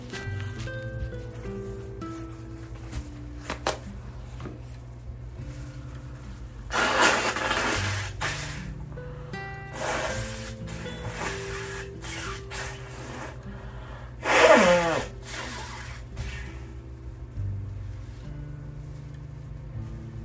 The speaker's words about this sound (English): Oh, I gotta blow my nose, y'all. Hold on.